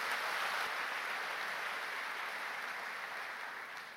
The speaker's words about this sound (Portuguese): Se você crê, dê um grande aplauso ao Senhor, porque é verdade o que eu estou dizendo.